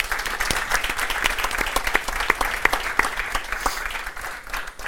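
An audience claps steadily for about five seconds, applauding a guest who gives his pay to a children's clinic, a dense patter of many hands with sharper individual claps standing out, sustained at an even level before easing slightly at the end.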